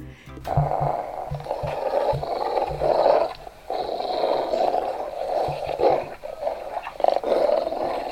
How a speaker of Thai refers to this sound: การคำรามเป็นการบ่งบอกถึงความก้าวร้าวค่ะ เช่นเมื่อหมารู้สึกว่าตัวเองอ่ะถูกคุกคาม หรือว่าถูกแย่งอาหารไป เมื่อหมาส่งเสียงคำรามต้องระวังตัวนะคะ เพราะว่าเขาพร้อมที่จะสู้แล้วล่ะค่ะ